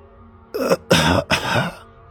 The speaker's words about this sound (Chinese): 爷爷侧头看向我，咳嗽了两声，那声音。像喉咙里卡着一口痰，声音很难听，很刺耳。